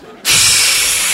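After a brief quiet moment, a sudden burst of breath blows straight into a dusty microphone to clear it, making a loud, steady, rushing hiss with a low rumble that continues to the end.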